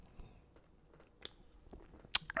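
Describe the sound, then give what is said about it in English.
Quiet mouth sounds of someone taking a sip of a drink: soft wet lip smacks and a swallow, ending in a couple of sharper clicks, with no talking. “But give me a second to take a sip of this right here. A little ASMR for you.”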